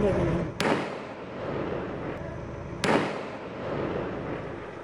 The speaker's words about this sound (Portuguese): Moradores de prédios próximos à agência bancária registraram parte da ação. Os criminosos usaram explosivos para destruir os caixas eletrônicos. Nas imagens, é possível ver fumaça e ouvir o barulho de tiros.